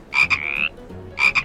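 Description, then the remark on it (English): A frog, Oakley, the one-horned frog mascot of Yangxue Education, croaks in two bursts. Each opens with a quick stuttering pair of croaks and then stretches into a drawn-out, high, buzzy call. The croaks are fairly loud, with no talking. “Oakley is a frog.”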